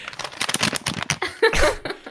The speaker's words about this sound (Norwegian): mumla og smatta og knørva med papir.